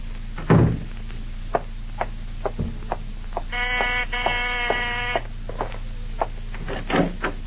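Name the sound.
door opening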